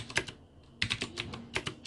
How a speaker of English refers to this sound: You like my clicky clicky keyboard? It may be too annoying.